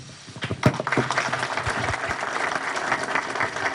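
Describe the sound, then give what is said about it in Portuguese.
Steady applause from supporters for a PSDB politician, a former governor of São Paulo, at the end of his speech on 23 May: many hands clapping in a dense, continuous patter that holds at an even level throughout, with a few sharper claps standing out early on. “Ao final do discurso, o Tucano se emocionou e foi aplaudido pelos apoiadores.”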